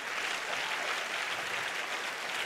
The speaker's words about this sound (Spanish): Si ese es el aplauso, dáselo bien al Padre